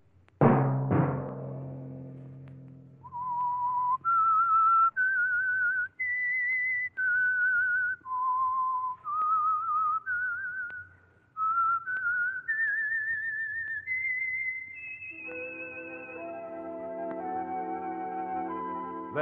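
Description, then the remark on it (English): A lone whistler carries a slow, wandering melody of clear, held notes, framed by two loud orchestral stabs at the start and a sustained orchestral chord swelling underneath at the end; the whistled theme of the Signal Oil radio program The Whistler. “that whistle be your signal each Sunday for the Signal Oil program, The Whistler.”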